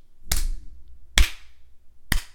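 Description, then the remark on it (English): Three sharp, loud hand claps land at a slow, steady pace about a second apart, each one crisp with nothing else around them. “slow clap.”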